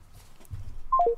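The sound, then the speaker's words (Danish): Telephone dialing tones while redialing a call: three quick electronic beeps stepping downward in pitch, clear, following a moment of low background rumble with no voices. “Skal vi måske lægge på at ringe op igen?”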